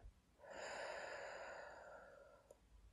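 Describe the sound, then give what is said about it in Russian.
A single deep breath, a long airy inhale flowing into a full, sighing exhale, fairly quiet, with no talking around it. “Давайте сейчас просто попробуем понаблюдать за своим дыханием, как будто остановимся и сделаем глубокий полный вдох и опустошающий выдох.”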